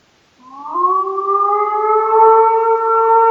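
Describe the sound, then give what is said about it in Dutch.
A lone wolf howls in one long, unbroken note that glides slightly upward and then holds a steady, loud pitch with rich overtones, with no talking. “Eh, jonge, jonge wolven huilen dus anders en veel meer echt als pups dan mhm. eh, een volwassen wolf.”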